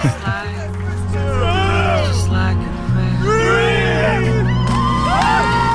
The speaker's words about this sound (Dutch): Plons. Ze hebben jou gewoon in de vijver gegooid. Ja, dat was traditie. Dan, eh, Daar zijn veel mensen in de vijver eh, gegooid.